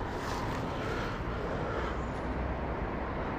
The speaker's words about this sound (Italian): forse arriva il mio autobus